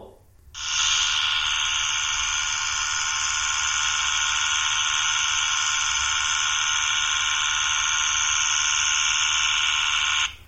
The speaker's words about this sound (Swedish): Ja, det låter som en klippmaskin och sen låter det som att det är vatten som sprutar. Ja. Så vad blir gissningen? Ja, då är det klippmaskinen. Nej, tyvärr. Det var en elektrisk tandborste det också.